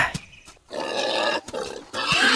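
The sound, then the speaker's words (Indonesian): A wild boar in a forest grunts and squeals loudly, harsh rasping bursts broken by brief pauses, with no speech. “Ah, babi hutan ternyata.”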